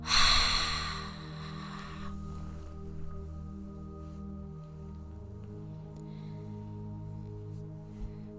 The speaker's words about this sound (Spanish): Vas a aguantar la respiración por unos segundos. Yo sé que puedes y a la cuenta de tres sueltas el aire con fuerza. Uno, dos, tres, suéltalo.